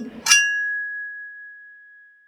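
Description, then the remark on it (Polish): A quick metallic scrape gives way to a single clear ringing tone as a knife is rubbed against a large-bladed cleaver, sustaining and slowly fading for about two seconds. “I dzięki temu, że tasaki mają bardzo duże ostrze, to jak się je pociera albo drugim nożem, albo tasakiem, albo nożem do masła, bo jest dosyć cichy i nie wydaje innych dźwięków, to wtedy ten ring, jaki słyszymy, ten taki metaliczny pogłos długi,”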